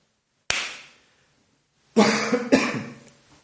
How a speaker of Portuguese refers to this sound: O cara bate palma primeiro, depois ele tosse, peida, aí ele vai começar a gravar. A tosse veio depois, porra. A tosse veio depois.